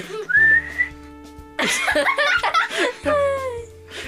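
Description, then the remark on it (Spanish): A short, mournful whistle with a drooping, falling pitch, accompanied by an earlier rising whistle and a burst of lively laughter in between. “es un silbido triste.”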